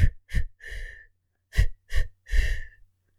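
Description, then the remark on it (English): A voice imitates the labored breathing of a woman breathing out her baby during birth: two sets of three forceful breaths, two short puffs then a longer drawn-out exhale, separated by a brief pause, with no words spoken. “I even s- seen uh, women just breathing out their baby.”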